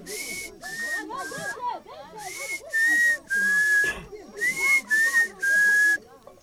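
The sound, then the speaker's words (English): A person whistles a pangolin's song, one the pangolin whistles while walking: a series of about nine short, breathy, hissing whistled phrases in an uneven rhythm, fairly loud, with faint voices murmuring underneath. “There's uh, uh, two different uh, things, uh, songs that the pangolin used to whistle when he's on his way walking.”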